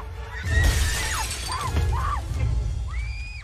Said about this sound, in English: Oh, broken glass too.